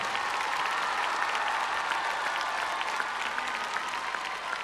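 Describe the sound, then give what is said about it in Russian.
Sustained audience applause for the television crew filming the event, a dense steady wash of many hands clapping at an even, fairly loud level throughout, with no voices rising above it. “Поблагодарим наших э, телевизионных коллег, всех, кто сейчас ведет телевизионную съемку, аплодисментами, о которых мы договаривались в начале нашей встречи.”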